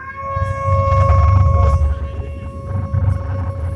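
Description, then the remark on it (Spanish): A sustained trumpet blast, sounded as the trumpet of Babylon in a church retelling, holds one steady, brassy pitch for about four seconds. It is loud and unbroken over a low rumbling background noise. “Pero cuando suena la trompeta y el sonido de Babilonia, ¿cómo suena la trompeta?”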